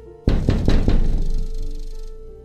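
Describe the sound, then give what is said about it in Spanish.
Three sharp knocks on window glass, made by something on the other side of the window during a ritual, in quick, even succession, solid and fairly loud, followed by a lingering low hum that slowly fades. No one speaks. “Y después escucharás cómo esa cosa también da tres golpes al cristal.”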